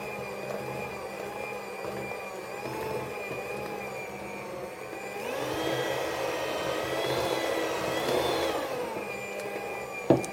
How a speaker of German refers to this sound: Also ihr hört es jetzt schon, auf der kleinsten Stufe hat meine Küchenmaschine jetzt schon ordentlich Probleme.